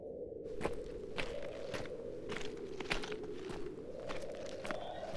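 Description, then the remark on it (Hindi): Steady footsteps crunching over rough ground as someone walks closer, about eight evenly spaced steps over a constant low rumble, moderately loud, with no voices. “चलो पहले पास जाकर सुनते हैं कि वो दोनों क्या बातें कर रहे हैं”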